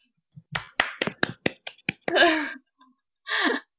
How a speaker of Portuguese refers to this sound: Uhul! Palmas!